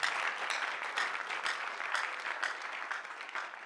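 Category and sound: crowd, audience clapping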